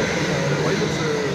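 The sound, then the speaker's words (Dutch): A train rushes past, its loud, steady roar and rumble filling the whole moment without letting up. No one speaks over it. “Sorry voor de trein.”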